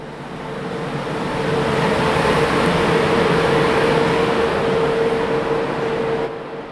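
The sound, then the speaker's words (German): A train arrives at Ingolstadt main station in Germany, rumbling in with a steady, loud roar and a sustained high whine running through it, swelling up then easing off slightly at the end. No voices. “Ein Zug kommt an am Hauptbahnhof Ingolstadt.”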